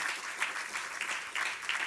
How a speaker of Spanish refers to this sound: Den un aplauso fuerte al Señor en esta hora.